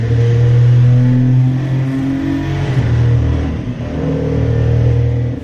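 A loud turbocharged race car engine revs steadily, its deep harmonic drone holding and shifting pitch for several seconds with the turbos audible, and no one talking over it.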